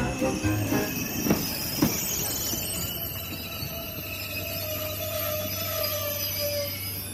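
A train rolls slowly and carefully over a heritage-listed viaduct on worn tracks with a continuous low rumble, a few soft clunks early on and thin metallic wheel squeals drawing out above, without any talking.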